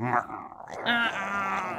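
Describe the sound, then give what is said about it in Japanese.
A person growls in imitation of a tiger: a close, fairly loud, throaty rumble that dips briefly, then swells into a longer sustained growl. “虎の人形がずっと後ろで、タイラーちゃんか、ずっと後ろで”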